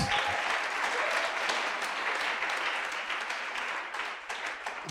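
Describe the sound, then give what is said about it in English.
A church audience claps together as a clap offering to Jesus in dense, sustained applause, a steady wash of many hands that stays loud for the whole stretch and eases only slightly toward the end. “Can you give a powerful clap offering to Jesus?”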